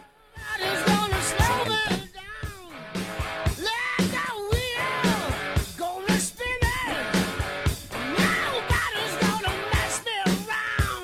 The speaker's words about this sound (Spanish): Tiene un micrófono para expresarse usted que grita del otro lado.